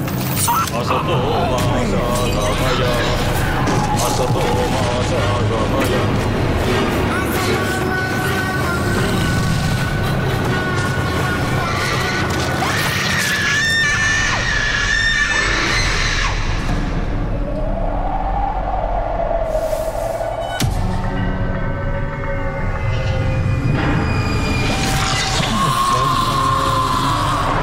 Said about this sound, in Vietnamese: Ừm, vẫn là những cái âm thanh rất là quen khi mà đến với những bộ phim kinh dị đúng không? Những cái âm thanh nó rùng rợn một chút nè, nó hơi huyền bí một chút nè, rồi cũng có những cái tiếng hét thất thanh